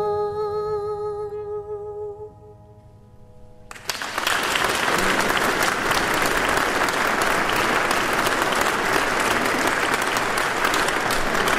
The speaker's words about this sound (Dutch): Wij zien hier vanuit de sigarenkist door de grote kijkgaten het enthousiaste Radio 1-publiek applaudisseren.